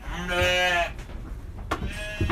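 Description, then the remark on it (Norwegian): A Norwegian White sheep bleats twice: a long wavering bleat, then a short pause before a second, shorter call. There is no talking, only faint farmyard background noise. “Norsk hvit sau heter det vel den sauen som jeg har.”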